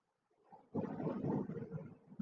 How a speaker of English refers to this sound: That's the Pacific Ocean. We're right, maybe 50, yeah, about 70 meters from the ocean.